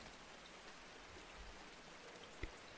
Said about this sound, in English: You try to focus on the gentle sounds of the rain outside your window. But you can hear that it's letting up.